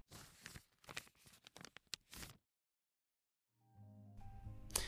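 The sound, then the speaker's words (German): Crinkly paper crumpling and tearing in quick irregular bursts, fairly loud, then a pause before a rising tonal whoosh and scraping noise build at the end. “Wie schön wäre jetzt so ein Soundeffekt, bei dem irgendwas gefaltet wird.”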